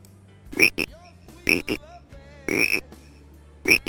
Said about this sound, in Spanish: Un sapito. Sapito.